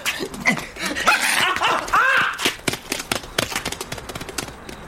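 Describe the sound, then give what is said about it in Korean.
A small dog named Jjongki barks and yaps excitedly at night as it bites a man's calf, with a rising whiny yelp in the middle, followed by a quick scatter of short, sharp sounds as the barking trails off. No one speaks. “피할 틈도 없이 쫑끼가 그의 종아리를 물어뜯었다.”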